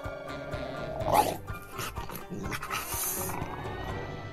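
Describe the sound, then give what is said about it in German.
A small male dog growls and snarls, a rough, rumbling sound with a sharper outburst near the start, continuing in uneven bursts over a few seconds with no talking. “Vor allem beim Knurren hat er es zur wahren Meisterschaft gebracht.”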